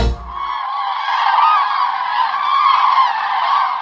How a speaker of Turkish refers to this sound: Turnaların vücut hareketleri ve güçlü sesleriyle kurduğu iletişim, şarkılı, danslı, müthiş güzellikte bir şova benzer.